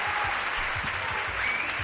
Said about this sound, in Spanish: El aplauso de Valladolid se está escuchando en todo el mundo, así nos lo hacen saber ya a través de los Twitter, del Facebook, de las guías de contacto.